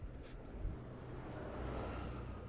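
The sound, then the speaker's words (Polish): A double-decker bus rolls past on a city street, its deep engine rumble steady, swelling slightly as it goes by, with no voices. “Tak, minął nas taki ładny dwupiętruskowy.”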